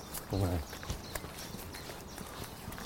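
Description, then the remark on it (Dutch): A hawfinch in a tree gives sharp, clipped tick calls, a few scattered clicks, with a brief low voice early on and a soft outdoor background. “Dit is die scherpe tik die je hoort.”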